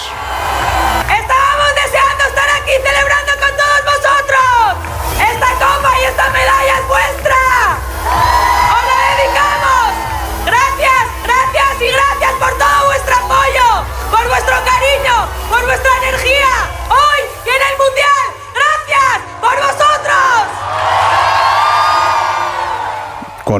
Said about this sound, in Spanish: se llegó allí a Madrid Río, a la zona de, Puente del Rey, y la afición entre 25.000 y 40.000 personas coreando a las jugadoras, por ejemplo, a las capitanas como Iván Andrés.